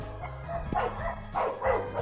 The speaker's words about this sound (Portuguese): Olha os cachorros tretando agora, mano.